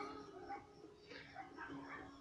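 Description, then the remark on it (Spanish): Faint dogs whining and giving short yelps in several bursts over a low steady background hum. “Sí, son tremendos los perros.”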